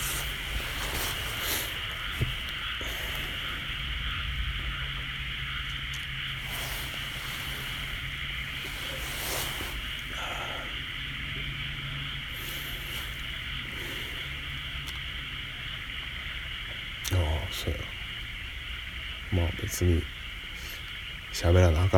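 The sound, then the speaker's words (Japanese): A dense chorus of frogs croaks continuously in an open outdoor setting, a steady trilling din with no voices, broken by a few louder thumps near the end. “まあなんか喋ること思いつくまでカエルの鳴き声を聞いててください”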